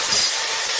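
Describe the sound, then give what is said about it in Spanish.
Loud, harsh burst of home renovation construction noise, a steady grinding hiss like a power tool running, lasting under a second with no voices. “Este es el ruido de las reformas.”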